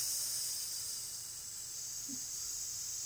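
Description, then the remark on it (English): A person hisses like a snake, one long steady airy hiss held for about three seconds without a break. It is fairly loud, with no talking. “Are you a snake? What is going on?”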